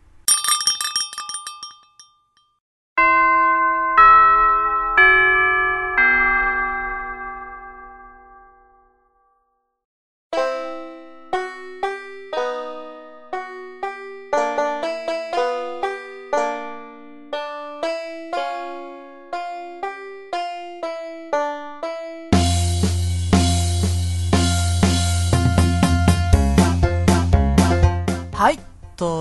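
A bright chime melody rings out in clear, decaying bell-like notes, pausing briefly before continuing as a longer tune that swells near the end with a deeper, fuller backing.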